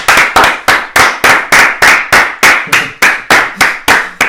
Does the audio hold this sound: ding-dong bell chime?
no